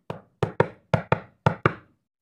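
Knocking on a wooden door: seven sharp, resonant raps in three quick groups (one, then pairs), fairly loud, with no voices present.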